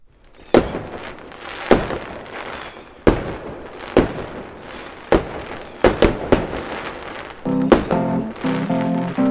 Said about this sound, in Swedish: spring, spring, det kommer smälla, spring! Göm dig bakom lådan!